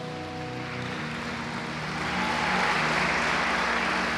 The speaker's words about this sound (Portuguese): Posso ouvir um amém? Vamos aplaudir o Espírito Santo.